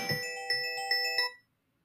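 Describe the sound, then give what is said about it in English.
A phone ringtone chimes out a short melodic phrase of bright, tonal notes in quick succession, fairly loud, then cuts off abruptly into silence. “pardon my phone, how rude”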